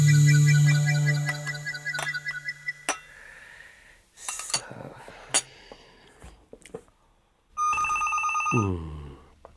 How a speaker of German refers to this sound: Der Fuchs will sich's bequem machen, in aller Ruhe ein Tassel Kaffee trinken, ein Stück Kuchen essen, den Sonntag geniessen wie jeden anderen auch. Und in dem Moment schellt das Telefon.